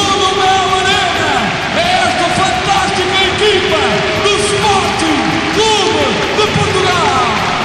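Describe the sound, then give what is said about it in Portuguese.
A packed indoor arena crowd at the Mel Arena, over 12,000 spectators at the Sporting vs Barcelona UEFA Futsal Cup semi-final, fills the space with a loud, continuous roar of applause, cheering and many overlapping voices that never lets up. “O Mel Arena está a arrebentar pelas costuras. Queremos ouvir o aplauso de todos.”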